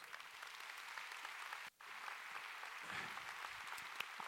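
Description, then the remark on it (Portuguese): A church audience applauds the Lord Jesus one morning, steadily, a dense wash of many hands clapping at once, sustained across the whole moment with a brief dip partway through before the clapping continues. “Quem pode dar um aplauso ao Senhor Jesus?”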